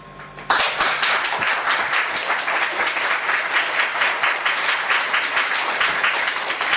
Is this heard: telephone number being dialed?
no